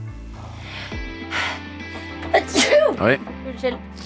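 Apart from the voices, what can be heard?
sneeze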